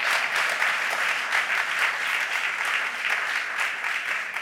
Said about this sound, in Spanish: hacer un reconocimiento a las personas que habéis organizado esta gala y a los que estáis detrás, no tan bien vestidos, sino sudando en este momento, y pediría un aplauso para ellos, por favor, a esas personas que nos acompañan.